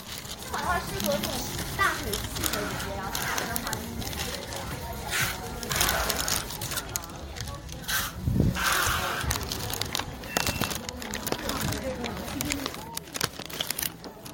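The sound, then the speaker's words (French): A bustling din of overlapping voices and children at the trade-only APM Wholesale Market, with scattered rustling, scraping and short tearing bursts of packaging rubbing and tape being torn as workers pack and unpack goods, steady and dense throughout. “Cette fois, le APM Wholesale Market est uniquement réservé aux gens du métier, ce qui ne vous empêche pas cela dit, de vous y perdre librement au rythme des emballages qui se frottent et du scotch déchiré.”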